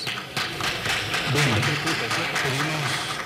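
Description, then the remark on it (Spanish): A crowd applauding, a dense, steady patter of many hands clapping throughout, with a voice speaking faintly underneath partway through, after a man handed a microphone is unable to speak. “Y después empiezan unos aplausos.”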